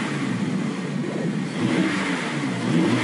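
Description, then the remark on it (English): A 2012 Mazda car engine revs steadily, a loud mid-pitched drone that swells slightly in the second half, with no voices over it. “Now, why don't you rev that engine for us? Make sure she runs all right.”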